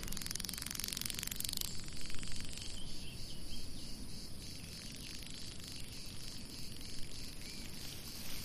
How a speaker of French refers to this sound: Tu peux observer et tu peux euh, écouter les abeilles qui sont sur les fleurs. Ce son apaisant, on l'entend ce bruissement des ailes ce, bruit des abeilles.